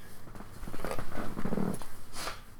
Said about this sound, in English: I'm hearing the bird right now. I'm like, "Shit." Hold on.